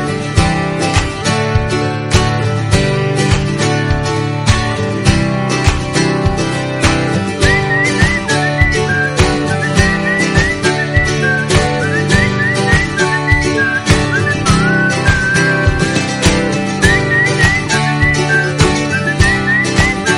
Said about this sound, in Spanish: te vamos a poner la sintonía de, entrada de la Fundación Más Humano para despedirnos